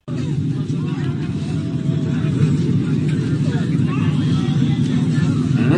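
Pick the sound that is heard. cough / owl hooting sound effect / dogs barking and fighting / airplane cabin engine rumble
airplane cabin engine rumble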